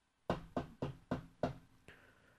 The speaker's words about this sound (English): and one year, Purim time, a very poor beggar came knocking on the door.